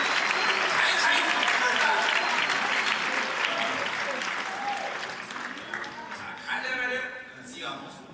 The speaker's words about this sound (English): So let's applaud the Lord for his glory and for the grace that he has given to us.